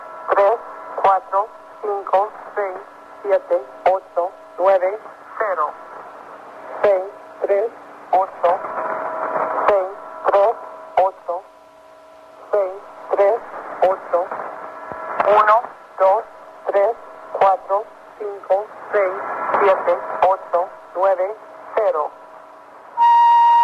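A shortwave radio station transmission from the 1990s: choppy, buzzy tone bursts repeat in an uneven, stuttering rhythm over a steady low hum, ending with a brief, thin high-pitched tone.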